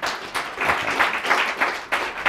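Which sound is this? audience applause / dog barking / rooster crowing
audience applause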